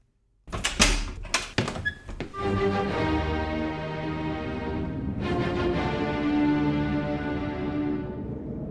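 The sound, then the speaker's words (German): Beethoven angrily yanks a door open with a quick burst of sharp, rattling clunks, then swelling sustained music takes over and continues steadily to the end. No voices. “Wütend reißt er die Tür auf.”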